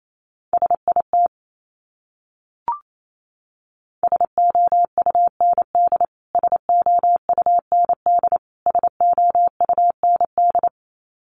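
Rapid Morse code beeps sent at 28 words per minute in a steady mid-pitched tone, short dots and longer dashes grouped into quick bursts with brief gaps, plus a single soft pop early on.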